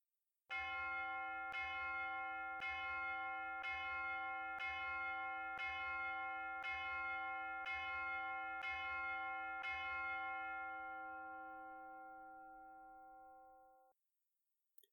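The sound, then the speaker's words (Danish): A large, resonant bell, rung by hauling on a rope, strikes ten times at a steady, unhurried pace, each stroke ringing powerfully into the next, then the final tone hums and fades away. No voices are heard. “Nok skulle han strække sig en lille smule mere for at nå denne gang, men hans anstrengelser blev belønnet med kraftig og algentrængende lyd af klokkespil. Ti gange han hæv, og ti gange klokken ringede.”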